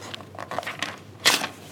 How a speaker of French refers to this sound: Non, t'arraches la feuille. Hop.